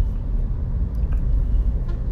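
A bus rolls past with a deep, steady engine rumble that stays fairly loud for the whole moment, heavy in the low end, with no voices over it.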